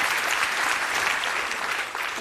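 A short burst of audience applause, a dense, steady clatter of many hands clapping at an even level throughout, with no voices over it.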